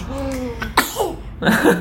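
Someone clears their throat up close: a short voiced hum, then two raspy, forceful coughing bursts, the second longer and harsher, with no speech around them.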